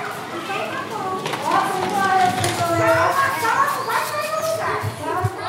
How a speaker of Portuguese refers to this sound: Foi muito tempo sem isso, né? As crianças chegando correndo, quase atropelando o colega que ainda está meio dorminhoco. As professoras na porta, recebendo os alunos. Tudo soa como antes, mas não dá para dizer que as coisas continuam iguais.